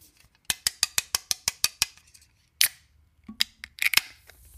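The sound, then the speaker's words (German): A pressurized sour beer bottle is opened: a quick, even run of mechanical clicks, then a sharp burst and a few scattered pops with a short spraying hiss as the beer sprays out onto a hand. No one speaks. “Uh, das kam rausgespritzt mhm. in meine Hand. Meine Hand ist ganz nass. Das klang, klang recht mechanisch, als ob ein Roboter äh, gerade so eine Luke ah, öffnet.”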